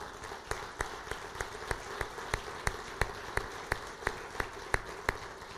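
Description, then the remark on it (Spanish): A crowd applauds steadily to honour women who carry their families, with a dense wash of clapping cut by sharp, evenly spaced claps about three per second, as if many hands fall into a shared rhythm. No one speaks. “¿Les podemos dar un aplauso a estas mujeres?”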